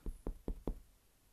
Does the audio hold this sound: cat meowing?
no